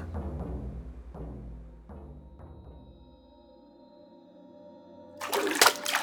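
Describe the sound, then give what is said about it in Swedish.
Low, droning musical tones with soft plucked notes fade out, then a sudden loud splash of water hits a person's face near the end, brief. “Du vaknar av en chock när vattnet träffar ditt ansikte.”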